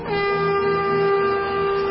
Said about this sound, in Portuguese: Quando chegou lá, nas montanhas de Efraim, ele tocou uma corneta de chifre de carneiro para chamar os homens de Israel para a luta.